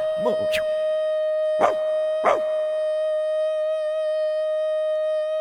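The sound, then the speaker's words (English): A dog gives a few short, wavering howls in the first half, fairly loud, over a steady sustained musical tone that holds throughout. “Look at the dog.”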